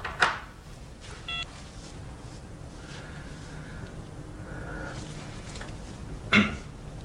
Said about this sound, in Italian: Senti, anche il telefono sta, sta facendo la telefonata, no?